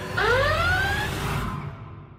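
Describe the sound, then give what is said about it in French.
A loud electronic alarm siren sound effect, marking a spoiler zone, sounds a single rising wail with a bright, harmonic tone. It swells over about a second, then cuts off, leaving a low background rumble. No one speaks. “On, vous venez d'entendre l'alarme.”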